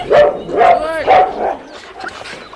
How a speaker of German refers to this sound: Haut ab, ihr dämlichen Köter!